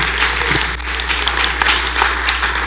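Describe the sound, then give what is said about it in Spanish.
An audience claps their hands for the Lord during worship, in a dense, steady burst of applause, many overlapping claps forming a continuous crackling wash at an even, fairly loud level throughout. “Dele palmas al Señor porque eso es lo que Él busca.”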